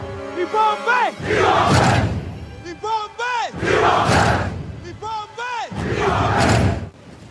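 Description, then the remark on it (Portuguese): A crowd chants a battle cry in unison, three loud, forceful shouts in a steady rhythm, with single voices calling out between each collective roar. “O tradicional grito de Wakanda, proferido pelo Pantera Negra, interpretado por Chadwick Boseman, quer dizer resistência”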